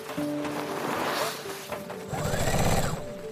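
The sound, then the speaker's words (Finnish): A sewing machine whirs steadily as a woman at a dining table feeds fabric through it, in a small house in rural Pembrokeshire, Wales, while rain beats on the window outside; its motor hum swells into a quick burst of rapid stitching toward the end, with a faint wash of background noise underneath. “Ulkona sade hakkaa ikkunaan, mutta ääni hautautuu ompelukoneen lakkaamattoman surinan alle.”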